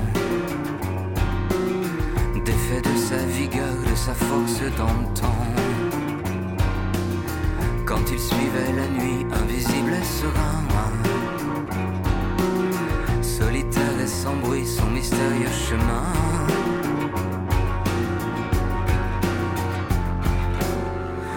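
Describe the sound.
A song plays at steady, full volume as a musical break on Radio Campus Paris, with a singer's voice carried over a driving beat and layered instruments throughout.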